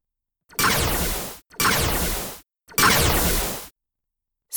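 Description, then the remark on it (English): Three loud Dracon beam blasts from a Bug fighter coming in low fire in quick succession. Each lasts about a second, with a sharp start and a hissing, downward-sweeping buzz, separated by brief silences. “The dracon beam sound effect is my own combination”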